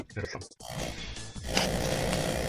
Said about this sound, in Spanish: un, ronquido ahí. ¿Será que está durmiendo